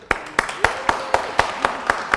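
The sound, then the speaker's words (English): An audience claps together in a steady, even rhythm, about nine sharp, crisp claps in quick succession with no talking over them. “Can we give her a clap?”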